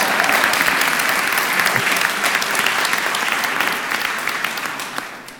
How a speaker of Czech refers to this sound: Hned následované poděkováním naší zvláštní sekci zvukových efektů. No. Potlesk pro ně.